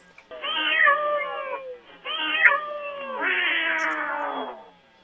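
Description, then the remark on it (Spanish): Two cats trade drawn-out meows in communication with each other: one insists with a pair of calls, and the other replies somewhat aggressively with a longer, harsher, growling yowl, with no talking. “Ahí hay una comunicación eh, en donde está insistiendo uno y el otro ya responde de una manera un tanto agresiva”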